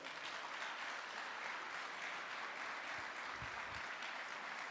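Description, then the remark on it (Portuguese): Sustained applause from a large crowd clapping for the Lord during a worship service, a dense, steady wash of clapping that holds at an even level throughout without any voices standing out. “Vamos aplaudir o Senhor.”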